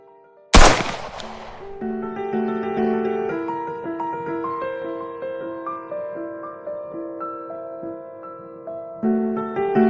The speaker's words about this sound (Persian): دستش رو به جیب کتش فرو برد بر براق بیرون آورد و به سمت خدمتکار نشونه گرفت با خون سردی تمام گفت مراقب باشید خانم میخوام شلیک کنم دختر همزمان با شلیک تیر نعری کشید